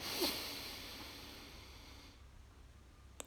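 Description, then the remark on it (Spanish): A long, slow, deep breath drawn in through the nose during a guided breathing exercise, a soft airy hiss that holds for about two seconds before fading into quiet, fairly gentle. “Volvemos con esa respiración profunda, inhalamos,”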